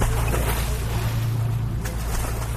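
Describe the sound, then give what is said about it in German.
A motorboat engine drones low and steady throughout off the coast of Hurghada, with a wash of wind and water noise over it and one brief burst that could be a splash as girls with swim fins, snorkels and masks drop one after another from the boat into the sea. “Vom Motorboot springen Lisa und ihre Freundinnen ins Meer”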